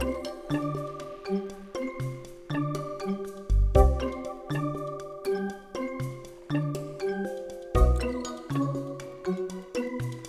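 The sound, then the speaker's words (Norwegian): Bright, playful video game music from the game Rayman, led by tinkling bell tones over a bouncy, steady rhythm, with deeper thumping accents now and then; purely instrumental with no voices. “Sånn bjelle, sånn bjeller. Elsker bjeller.”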